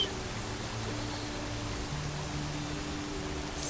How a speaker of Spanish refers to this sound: Siente la brisa del agua al caer.